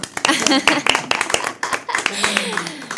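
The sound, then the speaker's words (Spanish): One person claps their hands in a quick, uneven burst of sharp, loud slaps lasting a few seconds, with a voice sounding underneath the claps. “Yo también me aplaudo.”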